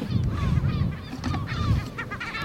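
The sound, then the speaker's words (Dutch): A stressed parent bird calls out repeatedly overhead in harsh, agitated honking cries, several in quick succession, fairly loud over a low rumbling background, while people are beside its chick. “die vogel die vooral dat geluidje daar maakt, die merkt dat hij een beetje ja, gestrest toch wel is.”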